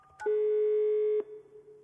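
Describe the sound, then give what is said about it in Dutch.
A click, then a loud, steady telephone dial tone holds for about a second before cutting to a fainter continuing tone, as someone phones a girl's mother. Clear, with no talking. “hoort via via van die middag en belt de moeder van Mira op.”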